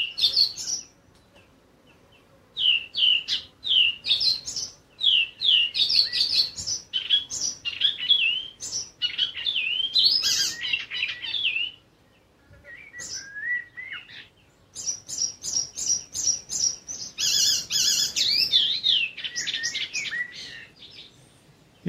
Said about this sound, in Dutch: Maar ehm, het is een redelijke opname van het onweer geworden met een fantastisch mooie spotvogel voor de, voor de lome zomersfeer. Nou, die lome zomeravondsfeer die gaan we nu even beluisteren. En dan komt vanzelf ook de spotvogel voorbij.